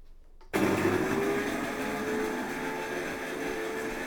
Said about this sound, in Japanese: 離れましたちょっとこれでもうるさいかなコーヒーメーカーの辛いところはこの音ですよねだから夜とかにはさすがに使えないですね